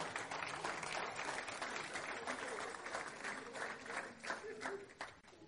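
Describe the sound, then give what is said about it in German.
An audience claps for Jesus during a sermon, breaking into sustained applause. It is a dense wash of many hands clapping steadily for several seconds, with scattered voices mixed in before it begins to thin out. “Klatsch mal für Jesus.”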